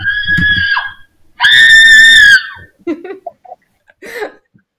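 Two long, piercing shrill screams, the second louder and steadier, followed by a few shorter, fainter high-pitched yelps and vocal bursts.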